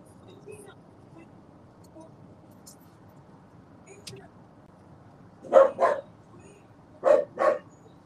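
A dog barks in two quick double bursts, four sharp barks in all, after several seconds of quiet with a faint background murmur.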